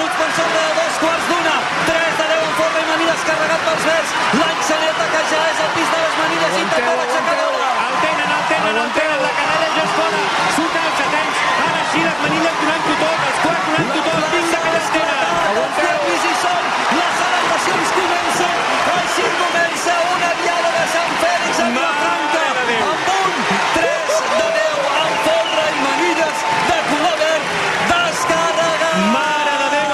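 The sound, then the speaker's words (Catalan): A large crowd in the town square claps and cheers steadily for a castell (human tower), a dense, continuous wash of applause mixed with shouting voices and whoops, staying loud from start to finish. “Aplaudiments a plaça”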